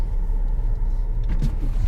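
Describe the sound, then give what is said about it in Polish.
A car's power window being lowered, a brief whirring motor sound rising out of the steady low rumble of the running vehicle, with no one speaking. “Dobra, ściągaj yy, okno.”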